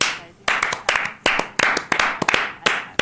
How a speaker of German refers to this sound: Zeigt euch nochmal, ihr habt den Applaus verdient, es ist euer Applaus.